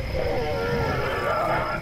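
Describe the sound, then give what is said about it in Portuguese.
A deep, drawn-out alligator bellow, loud, rumbling and wavering for about two seconds with no talking over it, as alligators exchange roars with one another. “Eles trocavam rugidos uns com os outros.”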